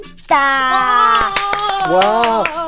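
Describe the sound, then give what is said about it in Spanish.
Applause at the opening of the 40th program of the cooking show Gastrolab: a run of sharp, irregular hand claps rings out over a loud, sustained tonal sound that holds steady, then bends in pitch before fading near the end. “Híjole, híjole, esto sí es de aplauso.”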